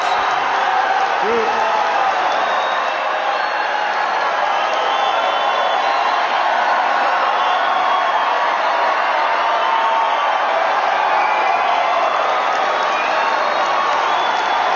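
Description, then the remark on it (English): A large crowd at a Donald Trump speech roars with 46 seconds of sustained cheering and applause, a dense, steady wash of clapping, shouts and whoops that stays loud and unbroken throughout. “Maybe I didn't need to have 46 seconds of applause in that.”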